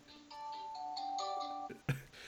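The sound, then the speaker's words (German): A bell rings with a bright electronic chime, a few sustained tones lasting just over a second, followed by a short sharp clack. Clear, with no talking. “Ach, ja, bei mir klingelt es gerade. War das die Glocke?”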